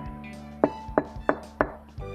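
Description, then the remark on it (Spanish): Four sharp, evenly spaced knocks on a castle door on a stormy night, firm and hollow, sounding over a steady low musical drone that continues throughout. “Una noche de tormenta, mientras estaban en plena charla, alguien llamó a la puerta.”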